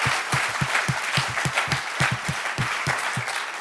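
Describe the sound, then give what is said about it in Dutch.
An audience gives God a hand, applauding steadily, dense clapping from many hands forming a continuous wash of sound, with some sharper individual claps standing out in an uneven rhythm. “Dus laten we God right. een applaus geven.”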